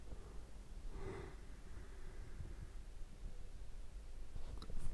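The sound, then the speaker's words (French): A single soft yawn, a breathy drawn-out exhale with a faint voiced hum, followed by quiet background noise and no talking. “Bref, je baille.”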